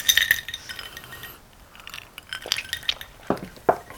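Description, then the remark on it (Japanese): Glasses of Calvados clink together in a toast, a bright ringing chime at the start followed by several lighter, scattered clinks and taps of glassware, with no voices. “じゃあ乾杯をはいいただきます”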